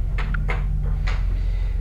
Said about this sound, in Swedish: det går att röra sig lite framåt och det är då ni kan höra fotsteg komma gående mot er.